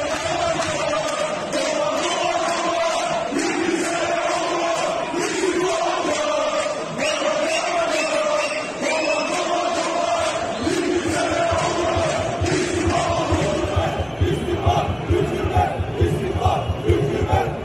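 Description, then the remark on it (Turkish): A huge football stadium crowd of Fenerbahçe and Beşiktaş supporters chants in unison in the stands, calling for the government to resign, steady and loud throughout, with rhythmic rising and falling phrases; toward the end the chanting grows choppier with sharp pulses like clapping or stamping. “İstersen önce tezahüratları dinleyelim Fenerbahçe ve Beşiktaş tribünlerindeki sonra devam edelim.”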